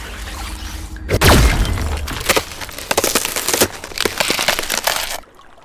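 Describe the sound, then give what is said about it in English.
Water freezes into cracking ice around a man standing ankle-deep in it: a sudden whooshing burst, then about four seconds of loud, dense crackling and sharp snapping before it cuts off abruptly. No one speaks. “Ice? He's frozen into the water.”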